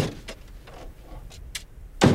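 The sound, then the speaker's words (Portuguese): A man shuts a truck door with a single loud thud near the end, preceded by a few faint clicks and rustles of movement. “Fecha a porta e coloca a espingarda no ombro.”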